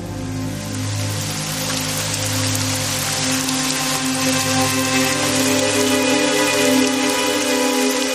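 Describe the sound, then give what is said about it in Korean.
Heavy rain pours down steadily, a dense, continuous hiss of drops striking a surface, with a low, steady hum underneath and no voices. “창밖을 보니 빗줄기는 점점 거세지고 있었다.”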